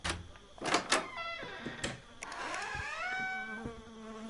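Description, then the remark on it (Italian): Flies buzz around blood on the floor, their droning whine rising and wavering in pitch, with a few sharp clicks and thumps early on before the steady buzzing fills the rest. “C'è del sangue a terra con delle mosche che ronzano attorno.”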